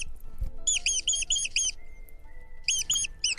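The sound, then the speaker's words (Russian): A rapid series of high, bird-like chirping squeaks, like a thrush, from a rat making a sound of pleasure, coming in quick rhythmic bursts of five or so, then a pause and another burst, fairly clear. “Это звук удовольствия.”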